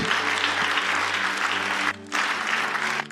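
An audience claps steadily, giving God a round of applause, in a dense, loud wash of applause, briefly dipping for a moment before surging back, with a faint low hum underneath.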